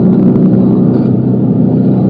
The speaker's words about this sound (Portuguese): Curva pra caramba esse carro.